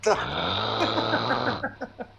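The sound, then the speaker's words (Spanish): A loud, drawn-out snore fills the first second and a half, rough and droning, apparently a voice imitating snoring, then brief bursts of talking follow. “Ya no estén roncando, animales.”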